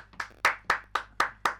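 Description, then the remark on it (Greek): A live audience claps in a steady, even rhythm: about six sharp, crisp claps spaced a quarter second apart, fairly loud, with no talking. “Ευχαριστώ, ευχαριστώ, ευχαριστώ. Βρισκόμαστε με ζωντανό κοινό.”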